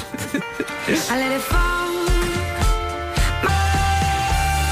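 A pop song plays steadily at full volume, with sustained melodic tones, a firm bass line and rhythmic accents, and no talking over it.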